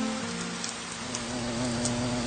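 Steady rain falling, a dense wash of patter with scattered brighter drop ticks and a low continuous hum beneath, no voices.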